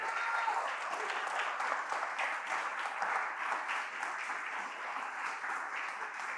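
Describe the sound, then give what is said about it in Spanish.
Sustained applause from a large group, a dense steady wash of many hands clapping at an even loudness for several seconds with no voices standing out. “Dele fuerte el aplauso, eso merece un aplauso.”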